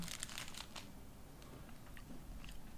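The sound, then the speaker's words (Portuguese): Crinkling and crackling of a cigar's wrapper being opened, with a dense burst of sharp crackles at first that thins into scattered crisp rustles. “Deixa eu abrir aqui, peraí. Tem que cortar o charuto, né?”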